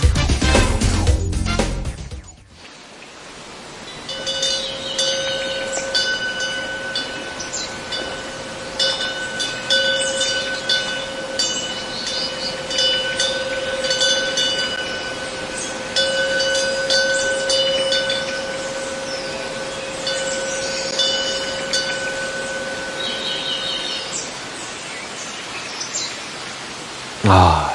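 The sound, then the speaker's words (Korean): A wind bell hanging from the eaves of a Buddhist temple rings with steady, sustained metallic tones, sprinkled with light intermittent tinkling over a soft breezy outdoor hush. No one speaks. “사찰의 풍경 소리 저희가 담아봤습니다.”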